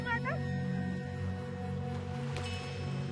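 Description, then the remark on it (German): An ama diver's long, wavering cry on resurfacing out of breath, rising sharply at the start and then held, fairly loud over a steady wash of background noise. “Wenn ich wieder hochkomme, habe ich ja keine Luft mehr. Ich muss dann meinen Rhythmus wiederfinden. Und dann schreie ich.”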